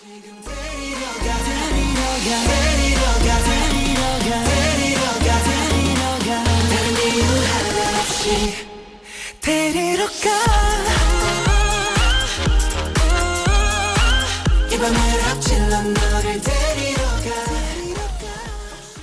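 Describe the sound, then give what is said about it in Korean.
A K-pop boy group song plays loud and full, with a punchy bass-heavy beat and layered vocals and synths, briefly dropping out for a moment midway before the track surges back. “그러면 노래 네. 한곡 듣고 올게요.”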